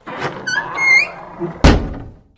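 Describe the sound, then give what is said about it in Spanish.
A room's door creaks with a rising, squeaky groan, then bursts open at night with a single loud bang that rings out and fades. No voices. “De pronto vio que la puerta del cuarto se abrió de un solo golpe.”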